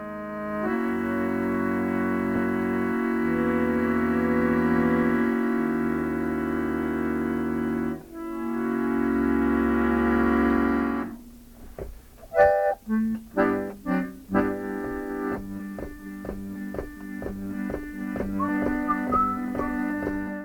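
Music from a home-made cassette recording: held, droning chords for about ten seconds, then a livelier passage of short, bouncing notes in a steady rhythm, fairly loud, with no voices.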